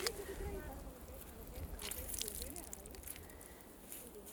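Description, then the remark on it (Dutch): Wet squelching and crackling as soaked bog moss is squeezed out, with trickling water and a few louder squishy bursts over about four seconds. “Nou, dan hebben we het nu zo'n beetje uitgeknepen. Maar als je hem dan weer teruglegt, dan zuigt hij zich langzamerhand weer vol water.”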